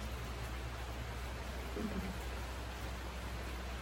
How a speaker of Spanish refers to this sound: ¿Vas a salir? Está lloviendo, no te conviene.